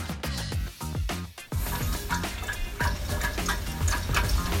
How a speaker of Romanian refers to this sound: Apă în calorifere. Apă în calorifere, oameni buni. Asta faci toamna, îți curăți caloriferul.